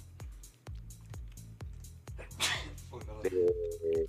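A single sharp sneeze bursts out midway, loud, over a steady rhythmic thumping beat, followed by a short tonal melody.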